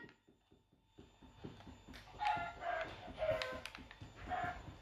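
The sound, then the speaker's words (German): A video game chicken, being set on fire, clucks in short repeated bursts over a steady, rapid rhythmic thumping, sounding like a game effect at moderate volume with no one speaking. “Dann zünde ich halt dieses Huhn hier an.”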